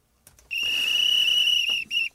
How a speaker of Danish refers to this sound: Og det var en af de lange, jeg fandt der, altså fløjter, kan man sige.